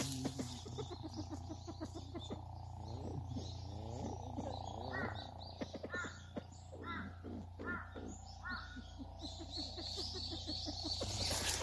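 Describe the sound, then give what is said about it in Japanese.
A copper pheasant calls from about 1.5 metres away, not fleeing, while people dig wild yams on a mountain, giving a series of harsh, raspy notes in irregular bursts over a steady low rumble of background noise. “ヤマドリがごく至近距離でずっと私たちの行動を監視していました”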